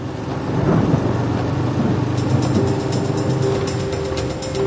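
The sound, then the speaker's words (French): A thunderstorm with heavy rain in Bavaria, brought by the low-pressure system Tim: a dense, steady roar of downpour with deep thunder rumbling underneath throughout, loud, with no voices. “Tief Tim bringt heftige Regenfälle und Gewitter nach Bayern.”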